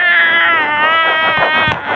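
A voice imitates a cat with one long, drawn-out meow lasting about two seconds. It is loud and strongly tonal, holding a fairly steady pitch with a slight wavering toward the end.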